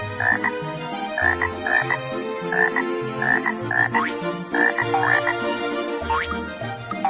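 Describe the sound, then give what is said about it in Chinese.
A toad croaks over and over in a steady, rhythmic chorus of low, throaty calls with bright upper pulses, loud and continuous for several seconds with no voices. “他还听蛤蟆唱歌，尽管那歌并不好听。”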